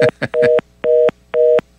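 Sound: telephone tone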